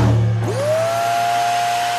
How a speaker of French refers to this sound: c'est votre nouvel aspirateur robot qui fait le ménage pendant que vous réservez vos vacances dans le sud.